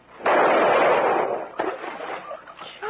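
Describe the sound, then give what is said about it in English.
A single loud rifle shot cracks out abruptly, its bullet going clean through a rubber boat hull; the harsh roar rumbles on for over a second before fading into fainter clatters and thumps, with no voices. “Your bullet went clean through it”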